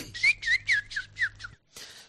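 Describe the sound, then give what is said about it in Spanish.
A quick run of six bright, high chirps in a steady rhythm, then a brief pause and another burst, like little birds chirping as a clear sound effect. “Por cierto, me cuentan mis pajaritos. Está bien, pajaritos”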